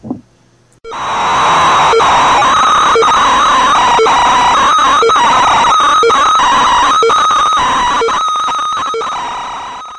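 A loud, chaotic segment jingle bursts in after a brief quiet moment: dense, clashing noise over a steady pulse about once per second, with no talking, slowly fading toward the end.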